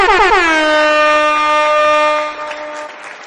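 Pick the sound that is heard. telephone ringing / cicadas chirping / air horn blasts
air horn blasts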